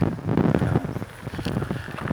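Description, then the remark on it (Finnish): Steady, blustery wind noise buffets the microphone, a low rumbling roar with gusty swells and no voices, continuous and fairly loud throughout. “Että voi vaikka tuossa autossa, kunhan tämä tuulehumina vähenee”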